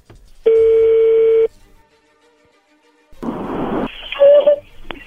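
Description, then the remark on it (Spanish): A phone call to someone's girlfriend connecting: one steady, buzzing ringback tone lasting about a second, a pause, then a rush of crackly line noise with a short warbling tone as the call picks up. “Ya entró ahí la llamada,”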